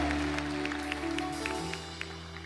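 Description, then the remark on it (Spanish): Scattered applause from an audience, loose and uneven claps over sustained keyboard chords, fairly quiet throughout. “Si me está entendiendo el aplauso, porque yo estoy tratando de darte algo que va a venir a bendecir tu vida.”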